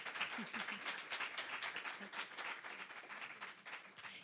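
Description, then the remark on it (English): Steady audience applause for the guests of the WorldCanvass program on teaching Anne Frank, a dense wash of many hands clapping at a fairly even level throughout, with no voices standing out. “Um, please give our guests a, a, warm round of applause.”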